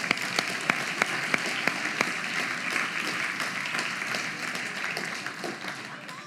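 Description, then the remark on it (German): An audience breaks into steady applause for a participant, a dense wash of many hands with a few sharper, distinct claps standing out early on, tapering slightly toward the end. “Vielen Dank, Applaus”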